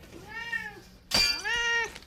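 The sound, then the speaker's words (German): A tomcat meows twice, clear: a drawn-out, wavering first meow, then a brief pause before a louder second one that opens with a sharp, breathy burst. “Du hast recht, Katerchen.”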